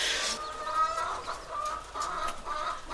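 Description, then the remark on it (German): A white chicken with black speckles clucks repeatedly in short, nasal bursts as it goes at other hens, moderately loud, with other hens faintly chattering in the background and no one speaking. “Ein Huhn, ein schönes Tier, weiß mit schwarzen Einsprengseln, stürzt sich auf seine Artgenossinnen.”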